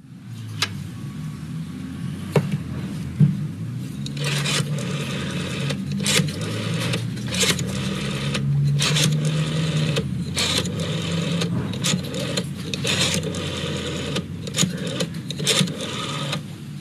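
A rotary telephone being dialed: repeated runs of quick mechanical clicks as the dial spins back, separated by short pauses, over a steady low whirring hum. No one speaks.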